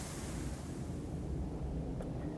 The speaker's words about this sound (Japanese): 今日は、またまた、海沿いに来てます。とっても今日は穏やかで、釣り人いっぱいいますね。